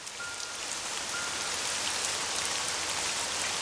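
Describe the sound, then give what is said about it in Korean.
Steady rain falls and patters on a surface, a dense, continuous hiss of drops that holds an even level throughout, with no voices; heard while two people walk together under a narrow umbrella. “빗소리를 배경 삼아 좁은 우산 속에서 어깨를 스치며 걸어갔는데요.”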